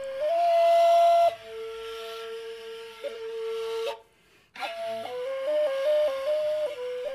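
A breathy end-blown flute plays long sustained notes, then a brief pause before a livelier passage of shifting pitches, with airy hiss around each tone and no voices.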